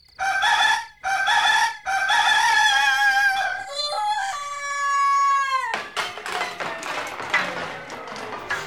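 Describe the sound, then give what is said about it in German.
A rooster crows loudly after sunrise, a long drawn-out cock-a-doodle-doo in several bursts, followed by scattered clucking and light clattering noises. “Die Sonne ist wie jeden Tag aufgegangen. Der Hahn kommt mit allerlei Baumaterial und Werkzeug aus der Scheune und baut sich ein abenteuerliches Gefährt mit vier roten Rädern.”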